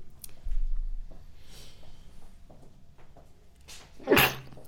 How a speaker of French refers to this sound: j'ai éternué, ah, fait chier, il veut pas venir, je suis désolée.